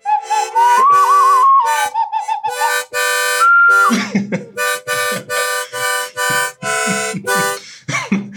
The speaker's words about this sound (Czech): Co to děláš? Hraju na okarínu.